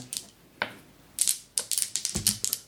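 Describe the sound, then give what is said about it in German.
Dice clatter and roll across a hard surface, rolled for a mental stability check: a few isolated clicks followed by a quick, irregular burst of sharp taps, fairly quiet and with no one talking. “ja, würfel mal auf geistige Stabilität.”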